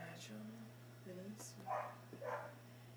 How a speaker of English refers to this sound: Dogs yeah, out there barking at you. They, they beefing right now.